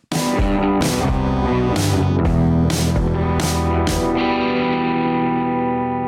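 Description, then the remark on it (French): A short, loud radio jingle of distorted, effects-laden guitar music punctuated by several bright crashing hits, sustaining to a held chord at the end, with no talking, signalling that the radio programme is nearing its end. “Comme vous l'entendez au jingle, nous approchons de la fin de l'émission et nous allons terminer par ces quelques annonces.”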